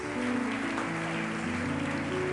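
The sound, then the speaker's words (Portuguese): An audience applauds the Lord in a dense, steady wash of clapping, with sustained keyboard chords droning underneath throughout. “Pode aplaudir ao Senhor com força.”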